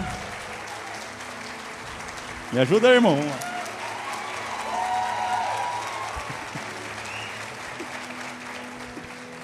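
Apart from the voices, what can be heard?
audience applauding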